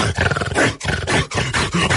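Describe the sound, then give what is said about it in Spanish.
A person imitates a lion, letting out loud, rough roars in about three long, throaty bursts separated by brief breaths, harsh and gravelly throughout with no ordinary speech. “Y de repente el león, cabrón.”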